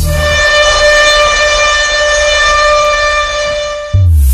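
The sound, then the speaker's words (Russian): A loud, steady civil defense siren sounds the "Attention everyone" warning signal, used to draw people's attention before an emergency message, wailing continuously at a high, sustained pitch and dominating throughout, with a low rumble underneath and no voices. “При возникновении чрезвычайной ситуации сигнал «Внимание всем» передается для привлечения внимания людей перед экстренным сообщением.”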